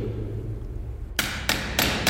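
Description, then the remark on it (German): Three sharp metallic hammer blows on a chisel set on a punch-through lock against a wall, breaking through the first layer to collect a material sample for asbestos testing, evenly spaced about a third of a second apart after a quiet low hum, each ringing briefly. “Er setzt einen Stechbeitel auf die Stanzschleuse, in der anderen Hand den Hammer.”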